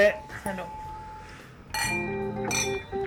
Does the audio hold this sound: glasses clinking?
yes